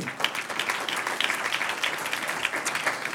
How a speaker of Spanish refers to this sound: Un aplauso al que vive.